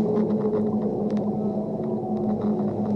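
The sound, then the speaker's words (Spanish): A long, low whale call sustains with steady tonal bands, moaning continuously over a deep underwater rumble, with no voices present. “cuando en esas profundidades, se acerca a nosotros la madre ballena”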